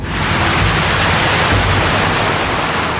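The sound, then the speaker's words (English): A car drives through a river, a loud, steady rush of splashing and churning spray with a low engine rumble underneath, continuous for the whole stretch. The car uses sonar transmitters and receivers in its door mirrors to measure the water depth. “Just goes right through the water, right through the river.”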